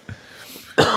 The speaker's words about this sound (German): Oh, Gesundheit, hast du etwa Husten? Ach nö, geht ein bisschen, bisschen kränklich.